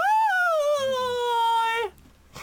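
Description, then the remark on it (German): A loud, drawn-out imitation of a foghorn, made by a voice altered with an effects device, slides slowly downward in pitch for about two seconds, then cuts off and leaves a faint echoing tail in a hall. “Und ich benutze meinen kann ihm singen, altes Meinen, Lied aus Anfängen von Mein audio -Vox, um ein lautes Nebelhorn erklingen zu lassen und meine Stimme zu verfremden und so.”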